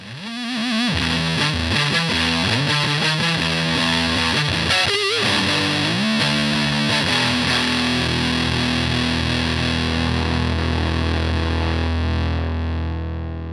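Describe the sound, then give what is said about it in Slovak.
An electric guitar played through a ProCo RAT pedal, heavily fuzzed and distorted, plays a short riff of sliding notes and bends, then holds a thick, buzzing sustained chord that rings steadily to the end. No one speaks. “Je to legendárny gitarový pedál, ktorý aj teraz nájde svoje miesto v veľa pedalboardoch kvôli jeho kombinácii distortion a faz zvuku.”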